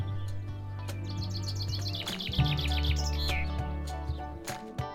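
A small bird chirps in quick, repeated high tweets that run together into a short song, clear, over a steady low background hum.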